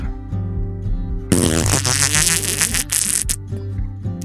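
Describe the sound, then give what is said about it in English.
A long, slow fart, loud, rasps and wobbles in pitch for about two seconds before trailing off, set against a steady tonal background. “You let out a slow, emptying like fart to clear your mind.”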